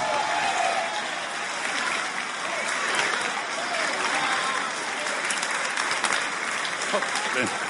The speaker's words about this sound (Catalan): Jo no sé què us explicarà, però jo estic molt content que estigui amb nosaltres avui. Carles Flavià! Fort aplaudiment!